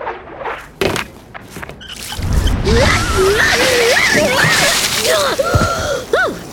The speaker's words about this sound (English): Let's fill these bad boys up with water. Lalo, toss me the hose.